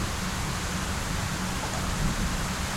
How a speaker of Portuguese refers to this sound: Ei, eu, tipo, na, é, é chuva do caralho,